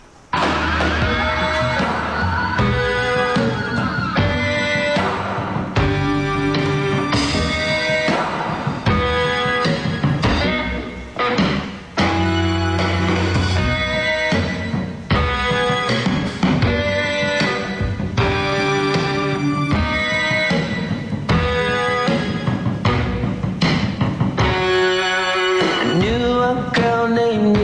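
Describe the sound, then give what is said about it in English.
A huge concert crowd sings the opening of a song in unison, a loud, continuous wall of voices for nearly half a minute, with scattered whoops and yells mixed in. “And the entire crowd sang the the opening to this song.”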